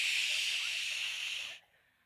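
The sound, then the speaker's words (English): A voice imitates the static hiss of a TV that went off the air late at night. It is a steady, breathy "shh" hiss, bright and sustained for about a second and a half before cutting off abruptly into quiet. “there was a time when TV went off. Right? Like there was a time, if you stayed up late enough, there was a time where it just went shh.”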